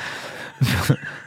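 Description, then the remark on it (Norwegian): A single short chair creak, fairly loud, a brief rough squeak lasting about a third of a second against a quiet background. “Nei, det var bare stolen som knirket.”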